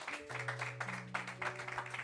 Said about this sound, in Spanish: Si tú lo crees, dale un aplauso fuerte al Señor.